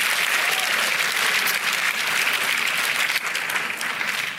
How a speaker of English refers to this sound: Somebody give the Lord a hand clap, a shout, a hallelujah, and an amen.